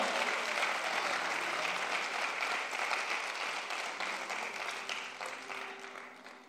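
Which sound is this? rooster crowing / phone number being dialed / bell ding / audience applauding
audience applauding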